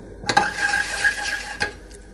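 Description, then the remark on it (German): A metal pan scrapes and slides in a steady swirling motion on a stovetop for over a second as gelatin is dissolved in it without boiling, with soft clinks at the start and end; moderately loud, no voices. “Das heißt, in schwenkenden Bewegungen, damit er nicht kocht, soll er nicht kochen, sondern nur auflösen.”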